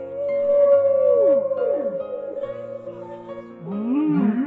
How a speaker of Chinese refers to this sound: 座头鲸被人们称作为发出世界上最美丽声音的鲸鱼。座头鲸的歌声呀，并不是盲目的乱吼乱叫。而是有一定的节奏，还有频率，听起来就好像是在哭泣，好像是呻吟，好像是呼噜，